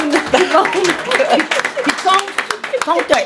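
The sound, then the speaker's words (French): A crowd claps steadily for a few seconds, a dense patter of hand claps mixed with cheering and excited voices calling out over the applause. “On l'applaudit”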